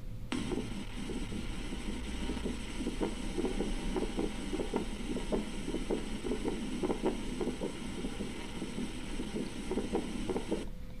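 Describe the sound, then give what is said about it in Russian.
A heart sound recording of a pulmonary ejection click: steady, repeating thumping beats with a sharp click after each, somewhat muffled beneath a constant background hiss and hum, with no voices. “Дальше у нас легочный щелчок изгнания.”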